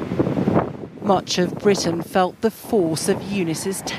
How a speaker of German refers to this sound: In the end, the calling card of Storm Eunice was its devastating winds. With record speeds of up to 122 miles per hour,